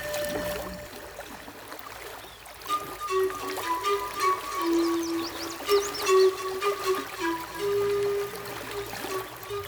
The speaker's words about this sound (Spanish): Habla el río de la Vieja.